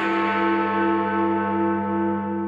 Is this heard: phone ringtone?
no